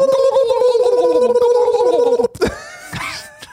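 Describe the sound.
A voice imitates a turkey's gobble: a loud, rapid, warbling trill held for about two seconds, followed by a few shorter throaty vocal bursts.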